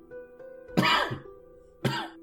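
Two harsh, close coughs about a second apart, the first longer and raspier with a throaty rattle, the second sharper and shorter, over a faint background hum.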